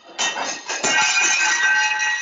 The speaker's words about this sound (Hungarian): bocsánat, de itt leesett egy tányér lakásba, fogalmam sincs, hogy amire közelébe sem voltam.